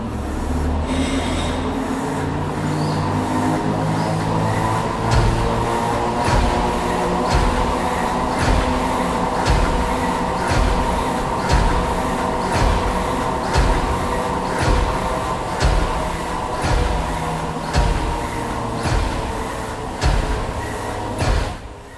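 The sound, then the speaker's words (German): A heavy briquette press at a briquette factory, fed with dry coal dust through a pipe system, runs with a steady mechanical rumble, while briquettes clack out in a regular rhythm of sharp knocks, roughly one per second, loud throughout. “Wenn diese heute für Besucher angelassen wird, fehlt dabei das typische Klackern der herausfallenden Briketts.”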